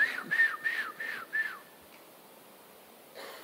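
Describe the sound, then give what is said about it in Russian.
Five short, breathy whistles in quick rhythmic succession, moderately loud, as people sitting in a garage in a residential yard whistle to call someone over, followed by a brief quiet stretch. “И они такие свистят меня.”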